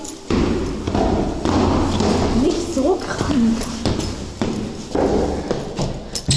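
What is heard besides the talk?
footsteps walking up stairs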